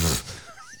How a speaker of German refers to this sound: Gesundheit.